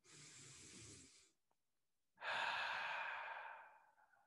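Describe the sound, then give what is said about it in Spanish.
A long, airy deep inhale through the nose, a brief pause, then a fuller, louder exhale that slowly trails off, part of a guided deep-breathing exercise. Clear, with no talking. “Respiren, inhalen profundamente, exhalen profundamente, así de...”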